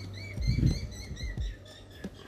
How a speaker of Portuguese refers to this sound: É, aqui tem uns pássaros que cantam, cantam bonito.